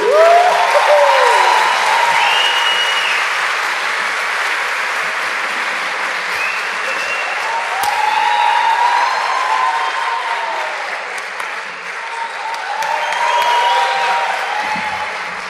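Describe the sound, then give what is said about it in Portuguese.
Sustained audience applause welcoming a performer, with steady, dense clapping and some cheering whistles, staying loud throughout with slight swells and dips over about fifteen seconds. “E para celebrar com a gente, queria que recebessem com muitas palmas.”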